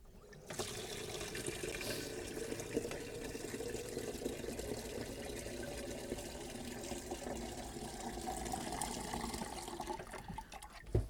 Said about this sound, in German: So, jetzt mache ich erstmal den Wasserkocher voll.